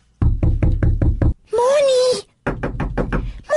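A quick series of about six firm knocks on a door, followed by a brief high wavering whine and then another burst of rapid knocking, close and loud.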